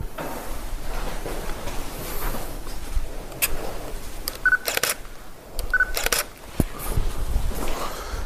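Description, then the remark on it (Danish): A camera's shutter clicks repeatedly over a few seconds, some clicks in quick pairs, with short electronic focus beeps just before two of them, against a steady low background rumble. “Lad os lige, jeg skal lige have et par billeder herinde.”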